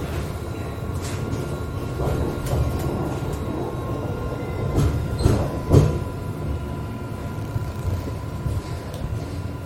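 Inside a moving Sydney tram, opened in 2020, running along a main street of central Sydney, Australia, near Haymarket stop: a steady low rumble of wheels on rails fills the cabin, with occasional clacks and rattles over track joints and a faint motor whine, no voices.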